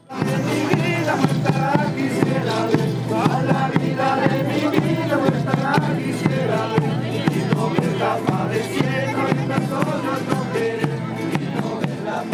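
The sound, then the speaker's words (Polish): Loud, dense noise of a street procession setting off through a small town, a dancing crowd's clamor over steady rhythmic beats and music-like tones, continuing without pause throughout. “Chwilę później pochód rusza, a my z nim.”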